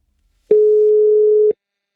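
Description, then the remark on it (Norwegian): A single steady telephone ringing tone while placing a call to former church minister Gudmund Hernes, one clean mid-pitched beep lasting about a second, heard clearly on its own with silence before and after. “Vi tok derfor en telefon til nettopp Hernes, som nå er forsker og professor.”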